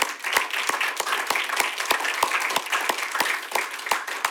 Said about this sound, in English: If you haven't figured it out yet, we're going to do a lot of clapping and celebrating uh, this morning on Vision Sunday.